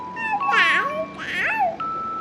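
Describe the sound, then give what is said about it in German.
A baby crib mobile with little horses is switched on and plays a steady, tinkly electronic tune in sustained high notes, while a young child's voice babbles and squeals over it in two rising and falling bursts. “Und noch dein Mobile anmachen.”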